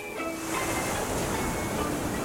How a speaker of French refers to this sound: Vous m'avez répondu le brouhaha des terrasses, des restaurants, la sonnerie de l'école, la machine à café du bureau